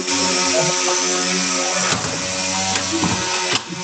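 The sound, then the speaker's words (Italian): Loud, steady whine of power tools cutting trees outside, a harsh buzzing motor that runs throughout with a few brief surges and dips in pitch; no voices. “Eh, stanno tagliando gli alberi.”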